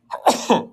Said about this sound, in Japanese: すいません。くしゃみしちゃいました。